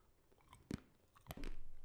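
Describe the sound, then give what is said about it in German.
Chewing of a sweet found on the coast in Peru, with a few sharp crunchy bites followed by steady wet mouth sounds, no talking. “Also ich esse hier übrigens nebenher hm. so eine Süßigkeit, die ich an der Küste gefunden habe.”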